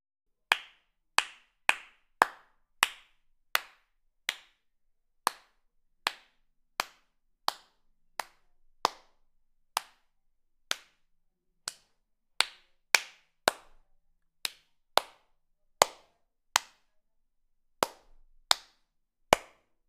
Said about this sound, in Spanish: ¿Cuántos están contigo? Aplaude por cada uno de ellos.